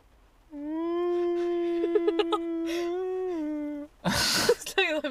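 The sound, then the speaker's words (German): Someone imitates a whale call with a single long, low, wavering moan held for about three seconds, followed by a breathy burst like a laugh and a brief vocal sound. “Mach äh, mal Wahlgeräusch.”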